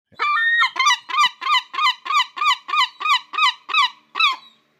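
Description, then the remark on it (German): A human voice imitates a screeching gull in a rapid series of about a dozen harsh, nasal calls, loud, in a steady rhythm with no talking over them. “eine Möwe möft oder wie wir sagen würden an der Nordsee, sie kreischt.”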